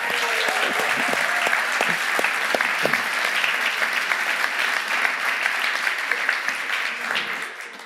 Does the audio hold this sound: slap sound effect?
no